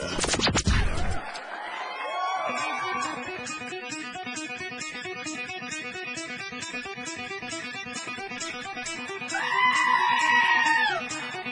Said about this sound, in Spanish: Señoras y señores, mucha atención. Recibamos con un fuerte aplauso el show del patrón.